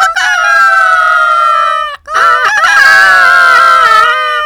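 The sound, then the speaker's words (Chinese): Three people imitate a rooster crowing together as a secret signal: two long, loud, drawn-out cock-a-doodle-doo calls separated by a brief pause, the second fuller and more layered, as if several people are crowing together. “他们连忙又一起学了几次鸡叫，而且越叫越卖力。”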